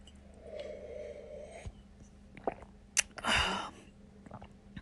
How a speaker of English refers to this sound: I tend to check mic levels using, uh, you know, the tried and true coffee sip. okay, let's try that again.